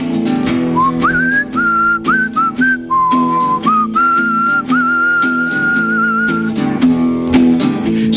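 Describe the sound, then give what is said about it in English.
A clear, bright whistled melody of held and sliding notes rides over steady instrumental backing, loud, with no talking. “Something to whistle while I am at work”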